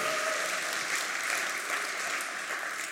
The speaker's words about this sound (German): Ihr dürft ihm einen Applaus geben. Jawohl.